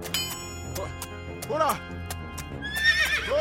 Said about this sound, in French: Maréchal, pourriez-vous vous occuper de mon cheval, s'il vous plaît Ces sabots ont souffert du voyage.